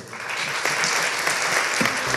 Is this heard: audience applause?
yes